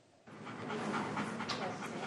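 Harvey, a US war veteran's dog and constant companion, pants rapidly and steadily, quick breathy huffs running continuously after a brief quiet start.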